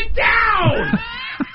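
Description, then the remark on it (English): A single loud, strained yell lasting over a second, its pitch sliding downward, as a voice mimics the harsh blare of an overloaded microphone. A few short vocal bursts trail off at the end. “Getting the mic level right is it that hard.”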